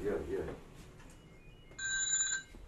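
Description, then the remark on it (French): A telephone rings with a bright electronic trill, one burst of stacked steady tones lasting about half a second, after a brief bit of muffled speech at the start. “Oh, le téléphone.”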